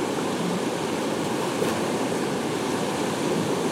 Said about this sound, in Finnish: Tää on aikamoista kuohua.